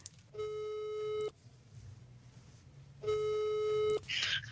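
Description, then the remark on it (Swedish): Two long, steady electronic ringback tones from an outgoing phone call being placed to a woman, each lasting about a second with a pause between, sounding clear over a faint low hum. “Så jag tänker att så här, vad passar inte bättre än att vi, vi ringer henne och så får, får ni snacka lite.”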